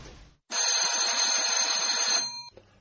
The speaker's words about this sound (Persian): پهبادها جدا از کاربردهای نظامی کاربردهای دیگری نیز دارند صدایی که شنیدید صدای یک پهباد امدادگر بود چندی پیش مخترعان جوان ایرانی موفق به ساخت پهباد غریق نجات شدند